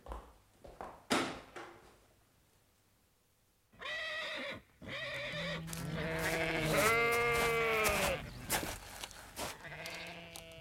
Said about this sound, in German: Wie ich sehe, haben Sie auch einige Schafe auf der Koppel, Colonel Ross. Wer hütet sie? Der Junge da.